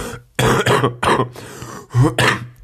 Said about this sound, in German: So, das klingt gar nicht mal so gesund, würde man jetzt behaupten. Nein, ernsthaft. Also, ähm, das ist schon krasser Husten und immer, wenn ich erkältet bin, klingt das so für euch.